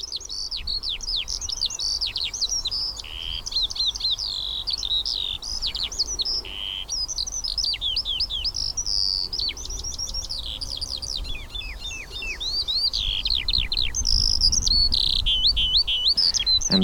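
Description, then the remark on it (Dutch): A skylark sings a long, unbroken stream of rapid, warbling trills and chirps, bright and high-pitched, with faint wind or background rumble underneath and no voices. “dat is de veldleeuwerik.”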